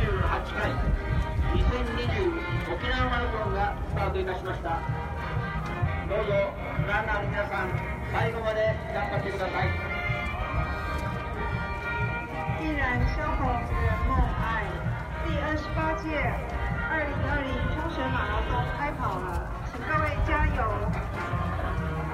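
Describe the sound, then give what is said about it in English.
A large crowd of marathon runners at the 2020 Okinawa Marathon in Okinawa shuffles forward on foot toward the start line, with steady, dense footsteps blending into a continuous murmur of many voices and a loud, busy background throughout. “And now we begin the shuffle towards the actual start line”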